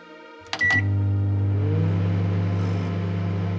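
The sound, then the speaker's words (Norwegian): A couple of sharp clicks, then a microwave oven starts up and runs with a steady, loud low hum and drone that continues to the end, with no voices. “og så var det noen som foreslo det geniale. Mikrobølgeovnlading.”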